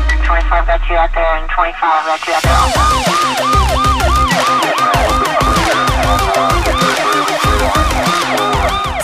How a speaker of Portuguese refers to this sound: Sirenes, carros em alta velocidade. Na época, a polícia de Nova York usava aqueles Ford Crown Victoria, sabe? Aqueles carros grandes, bem cara de filme dos anos 90.